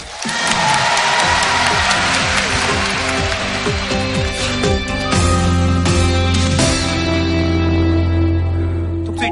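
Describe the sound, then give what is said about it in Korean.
A studio audience at a show recording cheers loudly and steadily for the whole stretch, a dense roar of voices with scattered claps and shouts, and a few sustained tones sounding underneath. “거의 뭐 함성 소리가 청중도 없고 아무도 없는 관계자만 인데서 녹화를 보통 예.”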